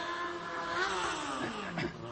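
A motorcycle engine revs hard, its whining pitch sweeping upward and then dropping back in one continuous two-second burst, with no voices over it.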